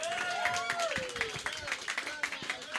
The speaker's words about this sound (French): s'il vous plaît, mesdames et messieurs, une bonne main d'applaudissements pour Pascal Grenier!